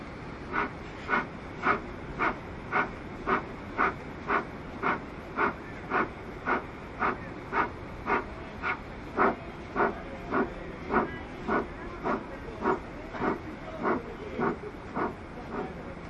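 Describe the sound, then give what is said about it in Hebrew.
Short, forceful exhalations through the nose during Kapalabhati, a pranayama breathing exercise done in rounds after a deep inhalation. They repeat in a steady, quick rhythm, about two per second, each a sharp breathy hiss, continuing evenly for the whole stretch with no talking. “אז אנחנו לוקחים שאיפה עמוקה ומוציאים אוויר בדרך האף מנשיפות קצרות וקצובות.”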